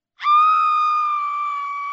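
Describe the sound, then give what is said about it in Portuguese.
A single playful high-pitched scream, loud, held steady for nearly two seconds with its pitch easing slightly downward before cutting off, with no talking around it. “esse gritinho aí foi ótimo. Grito e desespero”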